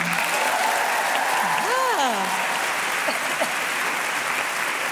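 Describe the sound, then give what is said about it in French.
An audience on the France Inter show Le grand dimanche soir applauds to vote in favour of a proposal, steady, dense applause filling the whole stretch at an even level, with a brief rising-and-falling voice-like tone cutting through the clapping near the middle. “Par applaudissement, qui est pour”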